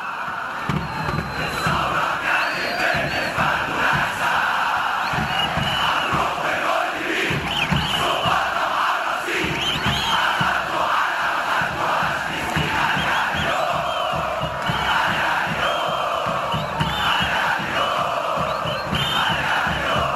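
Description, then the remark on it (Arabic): A huge crowd of football ultras chants together in the stadium stands, singing songs and chants to support their football clubs, a dense, continuous roar of massed voices with rhythmic surges and shouted cries sustained throughout, loud and unbroken. “تصدح أغاني مجموعات الألتراس وهتافاتها لتشجيع نواديها الكرويّة في المدرّجات”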